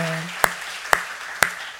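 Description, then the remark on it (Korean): Three sharp, evenly spaced hand claps ring out at a steady, deliberate pace, crisp, over a faint low hum with no talking, given by a church audience as thanks to the people who worked on the service broadcast. “우리 박수로 감사합니다.”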